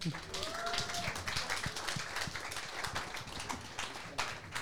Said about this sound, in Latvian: Nu, Skaļiem aplausiem sēdam Kārlis Tilkuts.